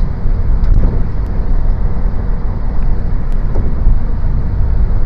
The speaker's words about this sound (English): I probably got this truck. It's passing me. Oh, it's Milwaukee Tools. Nothing but heavy duty.